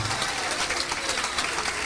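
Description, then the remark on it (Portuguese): An audience applauds the Lord Jesus during a church service as people come forward to the altar. Many hands clap in a dense, even wash of sound that holds at a constant level throughout, with no individual voices standing out. “E vamos continuar aplaudindo o Senhor Jesus por cada vida que está chegando.”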